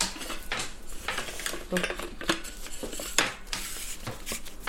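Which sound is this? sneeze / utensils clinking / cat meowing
utensils clinking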